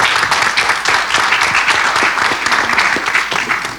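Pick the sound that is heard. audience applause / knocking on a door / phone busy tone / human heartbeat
audience applause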